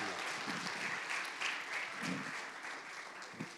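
A crowd claps steadily, a dense wash of many overlapping hand claps that holds at an even level for several seconds, with no voices standing out.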